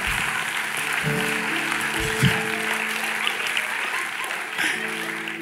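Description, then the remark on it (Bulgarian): A crowd claps steadily for several seconds, a dense, continuous patter of many hands, with sustained low tonal notes humming underneath. “Човекът до теб, който не пляска, разказах живота му сега.”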